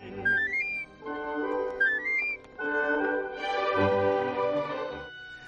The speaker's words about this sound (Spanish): Entonces empieza a escuchar unos silbidos o empieza a escuchar unos alguien silbar